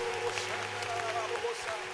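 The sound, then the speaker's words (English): An audience claps for Jesus steadily, a dense, continuous patter of many hands at an even loudness, with faint voices and sustained tones woven through the noise. “Keep clapping.”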